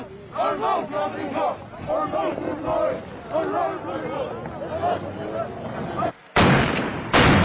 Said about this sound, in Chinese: 到目前为止，突袭任务的过程算是进展顺利，所以…在返回基地前，一定要来一段振奋士气的精神欢呼。